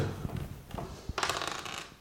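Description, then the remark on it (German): A few light clicks followed by a brief rattling clatter of a single die being rolled across a hard surface and landing on a one, quiet, with no talking. “Der Würfel, der liegt hier und ich habe eine Eins.”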